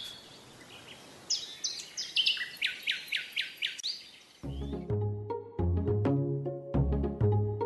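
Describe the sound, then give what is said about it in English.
Songbirds chirp in a quick, rhythmic series of bright, high notes over a soft background hiss, then the birdsong gives way to mellow instrumental music with sustained tones. “And with this new information in mind, I'm sure I am one of many people who can't wait for spring to come back around so we can hear birdsong again live.”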